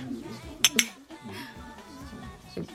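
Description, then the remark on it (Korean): Two quick, bright glass clinks close together, like glasses touched in a toast, with soft murmuring voices and room background around them. “아, 아, 네, 건배.”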